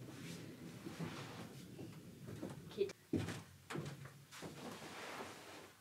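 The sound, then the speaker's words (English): A wooden treehouse trapdoor, knocked down by a cat that came up the ladder and was scurrying around, lands with a sharp bang midway through, followed by a quick second knock, over a steady background of low murmuring voices. “There, there's a little, um, like a trapdoor type of thing to get up into the treehouse, and uh, the cat came up the ladder and was scurrying around and knocked it down.”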